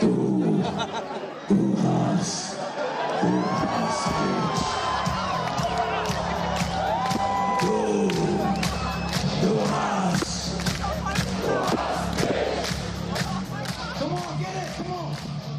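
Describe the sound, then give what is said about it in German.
A live rock song played loud, a short cover of a band's song by a rock band, with a steady heavy low rumble under it and a big crowd shouting, whooping and cheering throughout the whole stretch. “… mit einem kurzen Cover von …, äh, ….”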